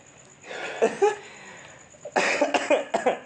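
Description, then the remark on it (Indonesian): A person coughs in two raspy bouts: a short cluster of coughs, a brief pause, then a longer run of several harsh, rapid coughs. No talking. “Aduh batuk lu ya.”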